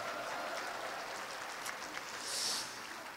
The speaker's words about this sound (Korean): 우리 다시 한번 뜨거운 박수 부탁드립니다.